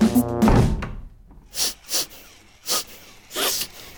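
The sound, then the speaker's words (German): A child's brief whimpering cry trails off, followed by four sharp, wet sniffles spaced about a second apart, fairly loud. “du musst doch nicht wegen Ellie heulen.”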